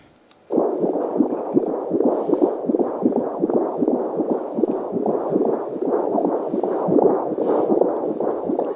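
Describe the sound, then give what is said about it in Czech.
A rapid embryonic heartbeat at three weeks after conception, heard as fast, steady whooshing pulses that start abruptly and repeat many times a second for several seconds, loud with no voices. “Teďka si můžeme poslechnout, jak skutečně takové srdce v tom třetím týdnu zní.”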